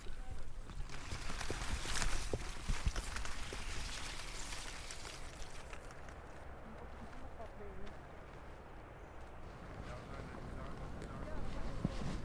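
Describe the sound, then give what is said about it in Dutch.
Steady footsteps crunch and shuffle across sand as people walk on a beach, set against a constant rush of wind or surf noise, with faint voices now and then. “lopen intussen op het strand.”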